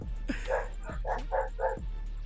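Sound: dog barking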